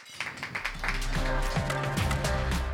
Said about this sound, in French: Bravo, on applaudit, bravo